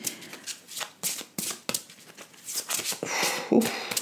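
Tarot cards are shuffled and drawn: quick papery riffles and sharp slaps of cards in an uneven rhythm, ending in a longer brushing sweep. No one speaks.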